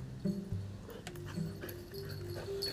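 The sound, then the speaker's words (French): A dog whimpers and whines in short, high, wavering bursts while playing with other dogs, with a few soft yips mixed in and light scuffling in the background. No one speaks. “Bah, avec les autres chiens, il fait ça.”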